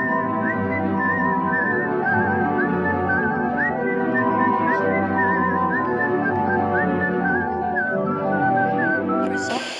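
A clear whistled melody carries a sweeping tune over a full orchestral backing, sustained and loud throughout in the style of a dramatic western film score.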